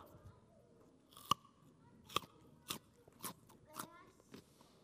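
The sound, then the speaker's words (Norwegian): Crisp, sharp crunches of someone biting into a raw carrot, two loud bites followed by several softer crunching chews against a quiet background. “Dette er en gulrot.”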